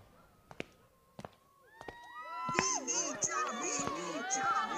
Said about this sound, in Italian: Sentite la folla! Sembra che invochino il suo nome.